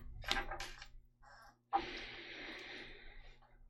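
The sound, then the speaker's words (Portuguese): A sharp, breathy inhale is heard, followed after a short pause by a longer, steady rush of breath. It's fairly quiet, with no talking. “Ela até respirou ali, ó.”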